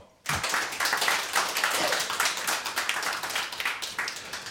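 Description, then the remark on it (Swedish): An audience breaks into applause for a guitarist sitting on stage after a brief silence, a dense, steady wash of many hands clapping that stays loud and even throughout, with no voices over it. “Applåd!”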